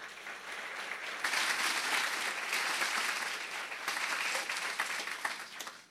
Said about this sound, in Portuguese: Será que você pode dar um aplauso ao Senhor?